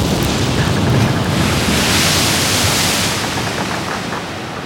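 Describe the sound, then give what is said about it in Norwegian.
Loud, continuous roar of storm-driven surf crashing on the Atlantic coast of northwest Spain, the Costa da Morte, on the night before New Year's Eve 1948, with gusting wind noise buffeting throughout and no voices, easing slightly toward the end. “Det er natt til nyttårsaften 1948. Stormen raser langs Atlanterhavskysten.”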